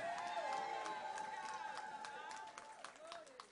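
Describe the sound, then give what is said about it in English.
A crowd claps and cheers together, with scattered uneven hand claps beneath sustained shouting and whooping voices. “Clap your hand and celebrate yourself.”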